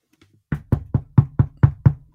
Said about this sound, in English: I'm knocking on wood right now. Do you do you have wood? That sounded like plastic. It's my wood desk.